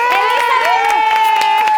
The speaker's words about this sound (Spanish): Y tengo aquí en el set y pido un aplauso muy fuerte para nuestras villanas. ¡Eh!